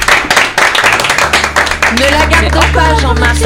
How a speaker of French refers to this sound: Ah, allez, on applaudit.